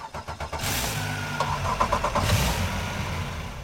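A boat motor cranks with a few rapid stuttering pulses, then catches and roars to life, settling into a steady, close, rumbling idle with no voices.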